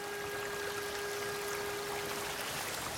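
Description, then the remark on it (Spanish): A bare foot moves gently in a shallow, flowing stream to cool off after a walk, the water burbling steadily and softly throughout, with no voices and only subtle swishes within the continuous rush. “Un pie descalzo se refresca moviéndose en un riachuelo.”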